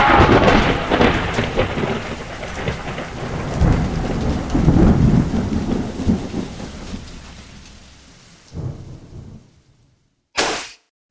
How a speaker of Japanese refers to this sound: そこの社長、雷鳴らすぞ。